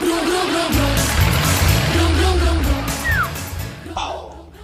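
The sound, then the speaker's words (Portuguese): A voice imitates a car engine with a loud, buzzing rumble that revs up and down in pitch for several seconds, then trails off near the end. “Qual é o barulho do motor do carro, gente? Deixa eu ouvir, deixa eu ouvir.”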